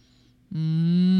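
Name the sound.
cattle mooing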